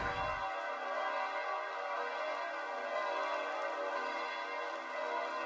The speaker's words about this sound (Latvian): Dzirdam, ka arī svētību, svētība tiek pagodināta ar, ar zvaniem, ar baznīcu zvaniem, kas zvana, kas arī simbolizē šo svarīgo brīdi, kad mēs saņemam visvētākā sakramenta svētība